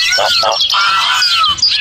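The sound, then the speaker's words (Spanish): Hundreds of birds in a girl's hair chirp and squawk noisily all at once, arguing, a dense, overlapping clamour of shrill, high calls that keeps going without pause for the whole couple of seconds. “Había cientos de pájaros en su cabello y no paraban de discutir.”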